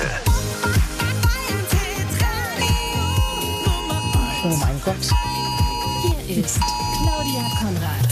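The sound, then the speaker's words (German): A mobile phone's emergency warning alert, arriving late, sounds three times in long, steady, piercing tone bursts with short gaps between them, loud over a person talking and background music. “Wisst ihr, was das ist? Das ist mein Handy.”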